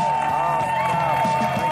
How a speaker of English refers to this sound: Oh, what a crowd. What a crowd. Thank you, ladies and gentlemen. You sound awesome.